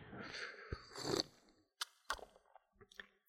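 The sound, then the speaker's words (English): Two airy slurps of hot tea by two people run into each other over about a second, followed by a few quiet clicks and small mouth sounds. No one speaks. “Should we both slurp and get that on the Yeah, let's get that slurp.”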